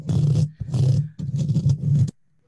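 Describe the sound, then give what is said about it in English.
Someone uses their voice to imitate an animal scratching under the floor: four loud, rough, low, rasping bursts in a steady rhythm, briefly gapped between them, then silence. “when i first heard the scratching it was like really light it was kind of like like that and i thought it was maybe like a bug crawling behind me in the paper or something that's what it sounded like and then it got to be like this”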